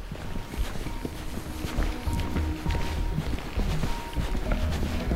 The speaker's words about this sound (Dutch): Gelukkig is de toegang tot de tunnel er nog wel. In de motregen lopen we er naartoe.